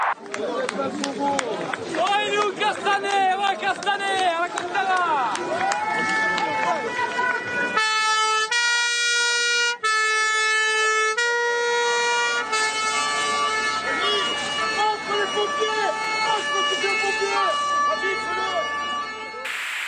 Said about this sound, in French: Le programme des pompiers comporte un créneau manif en ce mardi 15 octobre. Les soldats du feu, en colère, défilent dans Paris.